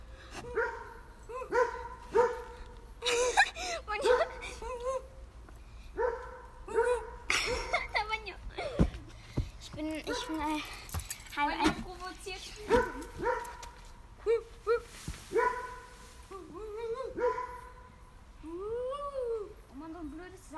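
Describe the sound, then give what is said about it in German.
A dog barks in quick, irregular bursts throughout, with sharp, high yips and whiny, rising-and-falling barks running together almost without pause. “Oh Gott, was macht der Hund?”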